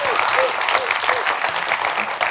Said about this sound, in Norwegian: Vi må, kan vi ikke gi dem, vi må bare klappe for dem. De trenger det. De, altså, de trenger det noe desperat.